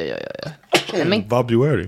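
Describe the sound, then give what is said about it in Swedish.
A quick series of small, stifled sneezes in close succession, followed right away by a person talking. “Oj, prosit.”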